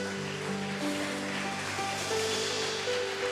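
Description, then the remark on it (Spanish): A church audience claps steadily for God in a dense, continuous wash of applause lasting several seconds, with sustained keyboard or organ tones playing underneath. “Dale fuerte el aplauso a Dios.”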